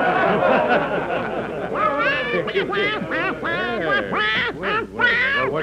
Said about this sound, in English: Why, a duck that sings. What make you of this miracle, Friar?